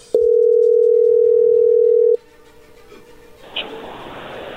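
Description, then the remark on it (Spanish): A steady, loud telephone tone drones for about two seconds as an outgoing phone call goes through, then cuts off, leaving a faint line hiss with a brief click near the end. “A ver, ya entró ahí la llamada, no haga ruido.”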